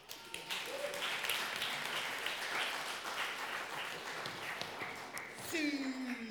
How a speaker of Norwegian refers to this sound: Kom opp, skal vi ikke gi dem en applaus?